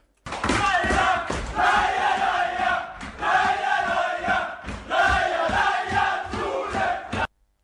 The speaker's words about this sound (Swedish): Umeå kommuns invånare jublade.